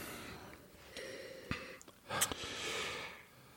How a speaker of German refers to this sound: Okay, also 2015. Dann wollen wir mal. Ich schnief also, sowieso die ganze Zeit, weil ich wieder Schnupfen kriege. Mal gucken, ob ich überhaupt was rieche hier.